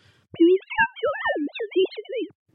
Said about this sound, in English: And actually, now you've heard one example of sine wave speech, you should be able to hear almost anything said in sine wave speech. So I've got an example of me saying something different.